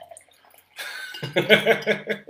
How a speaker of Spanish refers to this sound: No es, es, es agua, no es disco. Mira, agua.